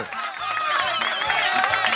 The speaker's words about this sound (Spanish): Aplauso para el negrito.